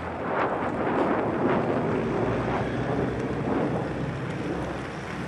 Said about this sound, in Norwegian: Og det skjer under akkompagnement av F-16-fly som har tatt av rett ved.